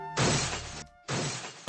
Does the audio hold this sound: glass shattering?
yes